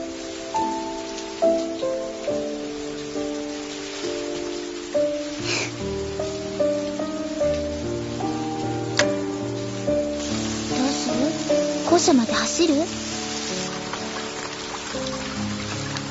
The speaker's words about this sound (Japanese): 雨降って人傘忘れだね